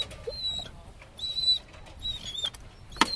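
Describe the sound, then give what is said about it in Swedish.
A dog whimpers eagerly in a run of thin, high-pitched whines, about four short bursts with brief gaps, followed by a sharp click near the end. No one speaks. “Att han piper så här, det är för att han är ivrig nu.”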